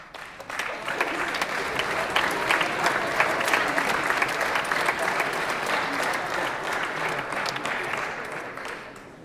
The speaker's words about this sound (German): Das ist schön, dass Sie da klatschen